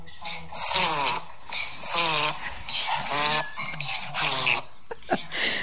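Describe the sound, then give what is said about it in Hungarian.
A dog that had fallen ill reverse sneezing, sucking air in backwards: four loud, harsh snorting gasps, each lasting about half a second, in an even, repeated rhythm, with a few faint sniffs at the end. “Visszafelé egy, szívta a levegőt.”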